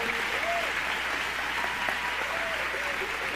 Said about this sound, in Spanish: quisiera que le demos un fuerte aplauso a la banda que tocó por el esfuerzo